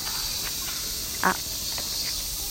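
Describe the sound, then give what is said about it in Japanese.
Steady high-pitched cicada drone fills the background in a park, a continuous shrill buzz throughout, with a brief soft vocal sound near the middle. “今私実は公園に来ていてあのセミの鳴き声とか子供の声とか結構するかもしれませんなんか家の中でレコーディングするのもなんか違うなと思ったので公園に来てます”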